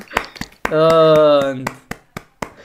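A few scattered hand claps, sharp and uneven, with a sustained held vocal tone filling the middle before the sparse claps continue.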